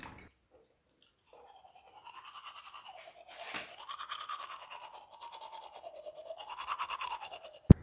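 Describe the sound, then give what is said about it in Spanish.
Toothbrush scrubbing against teeth in the kitchen during a morning routine, a steady rhythmic bristly rasp with wavering pitch that starts after a quiet moment and continues for several seconds, ending with a sharp click. “Salgo de mi cama y camino hacia la cocina para cepillarme los dientes y asearme.”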